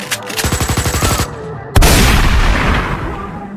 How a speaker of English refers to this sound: Oh, he ran at the first sound of gunfire.